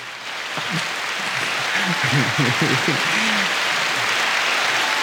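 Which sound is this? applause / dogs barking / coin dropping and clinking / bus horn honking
applause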